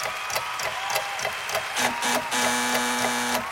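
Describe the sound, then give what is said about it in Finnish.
Busy clattering gives way to a low, buzzy wrong-answer horn: a few short honks followed by one loud sustained blast lasting about a second, with no talking. “Oi, Kyllä tuli töötti.”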